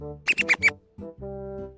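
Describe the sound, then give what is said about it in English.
Four quick, high-pitched squeaks from a sad rat in a rapid cluster, fairly loud, followed after a brief pause by a longer, steadier whining tone. “Sam has a sad rat.”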